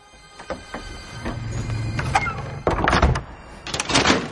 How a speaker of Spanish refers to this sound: Ojo Loco y Harry entran en el despacho. Moody cierra la puerta y echa un enorme cerrojo.